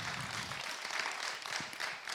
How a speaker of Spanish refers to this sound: Le damos un aplauso al Señor, aplauso al Señor.